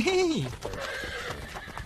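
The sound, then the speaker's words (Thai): A finely harnessed royal horse being walked about for show neighs loudly, a short whinny that drops in pitch, then trails off into a low, busy rustle and clatter that carries on until the end. “ได้ม้างามอย่างนี้ต้องอวดกันหน่อย มาเจ้ามา เดินไปทางโน้นอีกสักรอบ”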